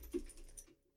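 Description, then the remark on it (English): A dog hops down from a couch: one soft, muffled thump followed by brief scuffling and light pattering, faint, fading into quiet after less than a second. “Sorry, that was my dog getting off the couch, guys.”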